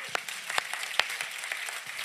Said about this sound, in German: Hey, komm, lass uns nur noch mal riesen Applaus geben.